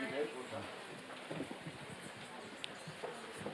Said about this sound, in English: I'll try to drown out the rain.